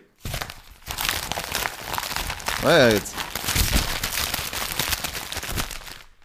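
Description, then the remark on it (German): A page of a Vienna district newspaper is crumpled, producing steady, dense crinkling and crackling for several seconds. A voice speaks briefly over the paper noise. “Ich habe so, hab so zusammengeknüllt und nichts passiert.”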